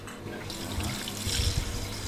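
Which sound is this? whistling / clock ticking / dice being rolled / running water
running water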